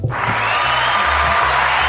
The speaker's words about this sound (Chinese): 有没有被我们这个热情的掌声给吓到了？